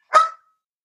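A single short bark from a female dog, sharp and fairly loud, heard alone with a brief tonal tail fading out and silence after.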